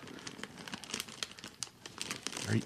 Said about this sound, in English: chip bag again? Well, oh, sorry. You knock it off. Knock off the chip eating.